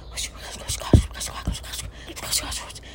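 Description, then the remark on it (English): A voice imitates whispering: breathy, hushed, wordless bursts that rise and fall for a few seconds, fairly quiet, with a couple of soft thumps in between. “And then I can hear whispering at the top of the stairs.”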